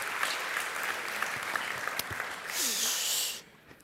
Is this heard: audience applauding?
yes